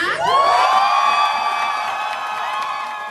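An audience erupts in loud, high-pitched cheering and whooping, a sustained wall of shrill voices that swells at once and then gradually eases off over a few seconds.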